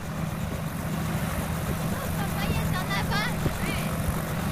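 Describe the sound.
A helicopter's engine and rotors roar in a constant, heavy drone that never lets up during a helicopter tour ride, with a few muffled voices surfacing briefly through the noise.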